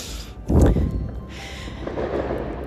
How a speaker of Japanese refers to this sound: 郊外なんですよね郊外でこんなにいっぱいの花火がねあげられるのはすごく珍しいです